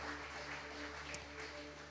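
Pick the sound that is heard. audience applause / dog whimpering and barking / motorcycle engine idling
audience applause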